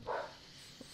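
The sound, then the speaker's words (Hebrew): A dog, the speaker's own, gives a single short, muffled bark near the start, followed by quiet room tone and a faint brief yip-like blip shortly before the end. No one speaks. “אה, זה הכלב שלי מסכים איתנו.”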